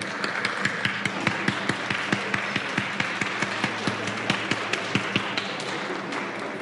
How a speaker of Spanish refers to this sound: Recibamos con un fuerte aplauso a nuestras integrantes del presidio.